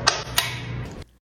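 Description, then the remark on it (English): A NutriSense biosensor applicator clicks onto the back of an arm: two sharp plastic clicks about a third of a second apart, with a soft continuous rustle that cuts off abruptly. No one speaks. “That was the sound of the NutriSense biosensor.”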